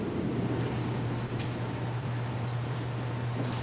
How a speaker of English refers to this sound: It's my air conditioning is on. Let me turn it off because it's kind of hard for me to hear. I have sure. a noisy air conditioner.